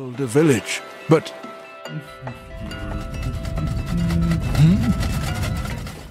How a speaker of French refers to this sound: Oh, le vent. il y a du vent là.